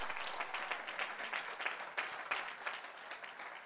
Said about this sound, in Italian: Ci credi? Fai un applauso a Gesù. Lui provvede.